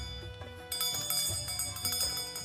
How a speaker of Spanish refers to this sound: También consiguió que los niños fueran a oírle predicar, porque iba por las calles tocando una campanilla.